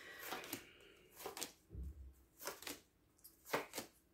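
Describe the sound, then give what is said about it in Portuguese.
Tarot cards being shuffled: a series of soft, papery bursts and flicks at an uneven pace, with no one speaking. “Eu estou aqui a baralhar e a papisa já saltou duas vezes.”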